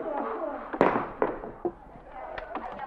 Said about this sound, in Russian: Это же последнее наше бревно. Ну что ты делаешь? Работа. Разве нельзя? Топором что ты делаешь? Ты понимаешь? Понимаю, товарищ директор. Рублю бревно. Вот именно, рубишь, рубишь и губишь.